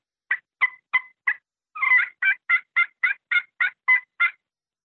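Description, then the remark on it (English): A turkey pot call worked with a purpleheart wood striker, giving a softer series of about thirteen crisp yelps in a steady rhythm, clear with no talking. “So with this purple heart, it's just got a little bit softer sound.”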